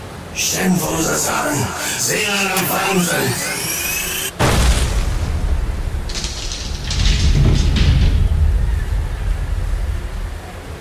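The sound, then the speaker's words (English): Warbling, sweeping tones build for a few seconds before glowing glyphs on a sealed door suddenly explode in a loud burst, leaving a deep rumble. The heavy door then slowly creaks open amid lingering low noise. “Riva's curses grew louder until, finally, the incandescent glyphs exploded and the door slowly squeaked open.”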